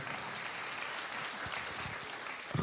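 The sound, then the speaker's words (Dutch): An audience claps steadily for the Farsi-speaking people present, a dense, even wash of many hands with no break, rising slightly louder right at the end. “Applaus jongens. Applaus voor deze.”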